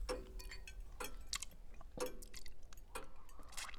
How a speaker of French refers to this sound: Et puis le silence est retombé, mis à part le bruit de l'horloge et celui des mâchoires de Max.